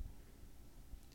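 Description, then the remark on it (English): A faint, steady low hum from an air conditioner drones on with no voices, an even background rumble that holds level for the whole moment. “if you hear a little bit of like a low humming sound in the background, all that is is the air conditioner”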